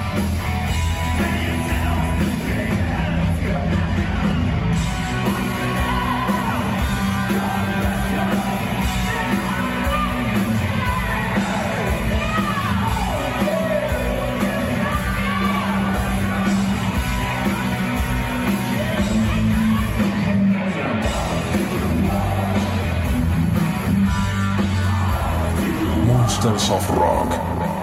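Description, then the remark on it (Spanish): A crowd yells and cheers over a loud, muddy wash of live rock music at a concert in Canada, recorded as an amateur video on a mobile phone from far away, with a tinny, distorted quality throughout. “Obviamente que se escucha mal, es un video aficionado, simplemente con un celular de lejos.”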